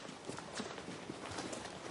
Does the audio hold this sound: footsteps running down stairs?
yes